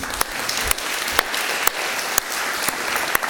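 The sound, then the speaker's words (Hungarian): Congregation applause at a church service for two people who have come in: a dense, steady wash of many hands clapping, moderately loud, with a few sharper claps standing out at regular intervals. No talking over it. “Szerintem tapsol, nem tapsolt, mikor bejöttek, ugye?”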